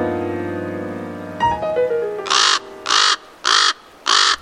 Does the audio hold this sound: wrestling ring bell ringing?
no